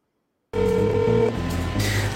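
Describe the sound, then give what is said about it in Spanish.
Telephone dialing tones from a call placed to ask about the health of President Toledo start abruptly after silence, a steady layered electronic tone holding at moderate loudness with a slight change partway through, with no voices. “Le estado llamando por teléfono y esto hecho el Carp, seguramente, no sé si como parte de una estrategia, por lo menos no estoy seguro si sea así, usted qué cree, pero lo pongo ya ¿eh?”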